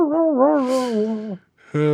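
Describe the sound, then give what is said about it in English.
A dog lets out a long, wavering howl that fades away, then starts another after a brief pause. It is fairly loud, with no talking. “yeah, somebody get that dog to be quiet.”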